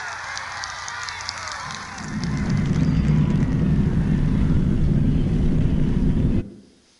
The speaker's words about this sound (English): What might else make that deep, rumbly sound? Sorry? Not SpaceX, but you're in the right ballpark. so I'll give you it's a rocket launch, and actually, it's the launch of Apollo 11 some time ago.